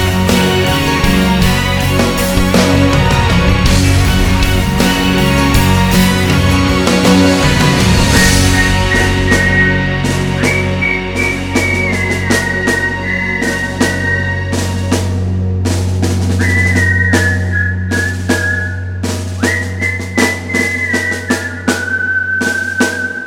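An Afrikaans song plays on a radio broadcast at full, steady volume, with dense layered instruments over a sustained low bass tone and a high, whistle-like melody stepping through the second half. No talking.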